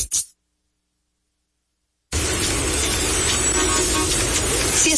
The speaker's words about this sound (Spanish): Estás en tu auto embotellado en el tránsito.